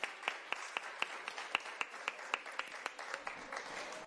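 Fairly faint applause from children at a Producciones Búnker event, for a singer about to sing a farewell song: a steady, rhythmic run of sharp claps, about four per second, continuing for several seconds with a light wash of sound beneath and no voices.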